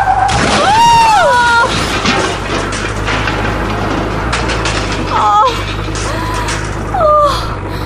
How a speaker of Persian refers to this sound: صدایی صدای چی بود؟ برو حیوان برو که فکر کنم جلوتر تصادف شده